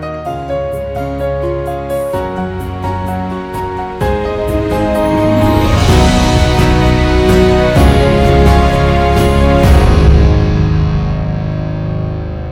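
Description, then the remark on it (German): A short radio jingle played before the 'Kino aktuell' segment of a radio programme, dense, effects-heavy music with distorted tones and a steady pulse, growing fuller midway before tapering off at the end, with no talking. “Ich bin mir nicht so genau sicher, was wer da was gesehen hat, aber das werden wir dann nach diesem kurzen Jingle dann hören.”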